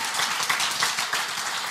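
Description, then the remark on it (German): A large church audience applauds steadily for Jesus, a dense wash of many hands clapping at once, loud and sustained across the whole moment with no voices standing out. “Can we give Jesus a huge hand lass uns Gott nochmal einen riesen Applaus geben.”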